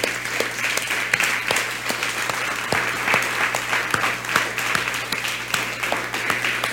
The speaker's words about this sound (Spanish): Para todas las naciones les damos un fuerte eh, abrazo y aparte los despedimos con un fuerte aplauso.